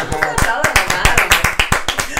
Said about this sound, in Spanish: así que un aplauso. bienvenida.